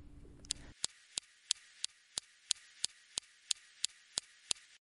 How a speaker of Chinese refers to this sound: 毅力号火星车是在去年二月十八日成功登陆火星的，上面携带了一种可以发射超强激光的科学仪器。当发射的激光撞击岩石后，会产生声音。记录的声音是这样的：